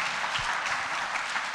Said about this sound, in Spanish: Muy bien por los que eh, ya se comprometieron. Esos son hombres. Esa, sí, sí, sí. Sí se merecen su aplauso.